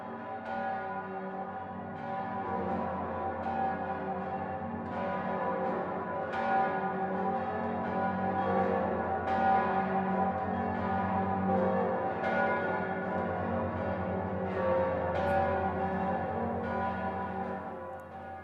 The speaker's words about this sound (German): Von München schauen wir jetzt nach Passau und hören die Glocken des Passauer Doms.